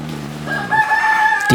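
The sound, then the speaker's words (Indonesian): A rooster crows once in front of a house at about 3:05 in the early morning, a long drawn-out cock-a-doodle-doo rising to a sustained high note and ending with an abrupt squawk, loud with no one speaking. “3 jam 3 lewat 5 menit ya itu tandanya ayam harus bangunin orang-orang”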